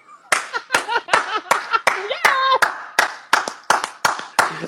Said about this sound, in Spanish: Bueno, si la respondo, quiero que me aplaudas duro. Dale.